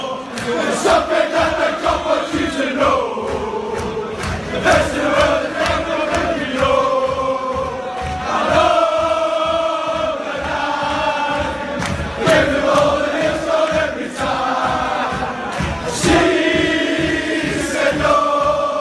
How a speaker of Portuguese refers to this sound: Então vamos dar um, um sobe-som para a galera conhecer, quem já não conhece, a nova música lá da torcida do Liverpool para o Bob.